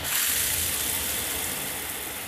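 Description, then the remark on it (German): Steady hiss of warm water pouring from a large rain shower head, a dense, continuous spray with no pauses, even in level throughout, with no voices. “Lange und schön warm warmes Wasser auf der Haut, die Augen geschlossen und ein paar Minuten ganz für mich ungestört in dieser Wohlfühloase, der große Regenduschkopf, tausend Tropfen.”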